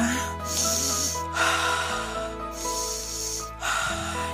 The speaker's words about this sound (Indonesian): inhale exhale inhale exhale tarik nafas buang nafas tarik nafas buang nafas